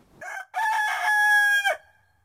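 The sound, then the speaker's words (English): A domestic chicken (Gallus gallus domesticus) gives a loud crowing call: a short opening note, a brief pause, then a long drawn-out harmonic cry that rises and cuts off abruptly. “Our tweet of the season is French hen.”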